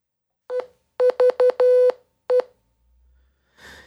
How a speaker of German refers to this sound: Ich spiele mal ganz kurz vor, hier, wenn man ja. jetzt in so einem Morse Code Translator geht und da mal Eve eintippt, äh, wie sich das anhört, dann bekommt man folgendes raus.